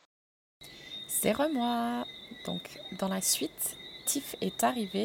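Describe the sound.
A steady, high-pitched chorus of frogs trills continuously in the background on a terrace, while a woman speaks into the microphone in the foreground.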